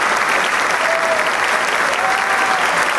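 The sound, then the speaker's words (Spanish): Steady, sustained applause from a concert audience after an oboe performance, a dense wash of many hands clapping at constant loudness, with no voices standing out above it. “Una vez más aparece ante el público para agradecer el favor del aplauso que siempre llena el alma del músico y de todo artista que está en un escenario.”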